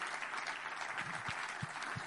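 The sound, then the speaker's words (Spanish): An audience claps together as praise to God in a steady, dense wash of applause, even for a couple of seconds with no voices standing out. “Dale un aplauso, aleluya, amén, gloria a Dios.”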